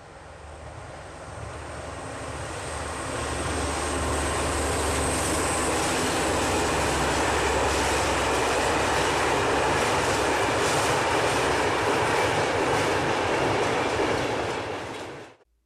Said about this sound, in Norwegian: Nå skal vi høre litt om de superraske Shinkansen-togene i Japan. Også kjent som kuletog, eller kuletog, som drives på presis høyteknologi.